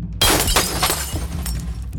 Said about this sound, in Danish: Du øh, fyrer et øh, løb af med havlgeværet og rammer ham i brystet. Han flyver igennem krogstuen og over i øh, nogle øh, i forvejen smadrede øh, flasker.